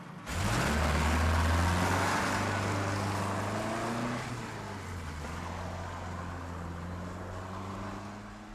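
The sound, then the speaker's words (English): A car engine cranks and catches, roars loudly as it revs up for a few seconds, then drops back to a steady, rumbling idle, with no voices. “My car won't start. Oh, don't worry. The AA will be here in a few minutes. They'll get it started.”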